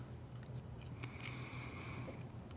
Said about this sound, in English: Now let us taste and see that the Lord is good. Take the bread or wafer and as you eat it, hear this promise from Jesus the body of Christ broken for you.